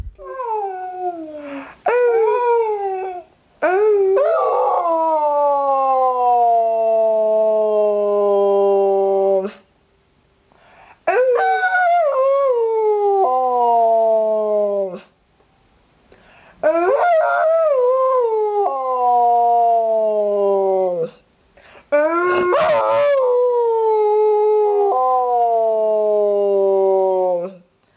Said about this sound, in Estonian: et koera tulguma saada, tuleb õige toon kätte saada, nagu koorijuht, kes õige tooni ette näitab ja kelgukoerad lähtuvad siis inimesest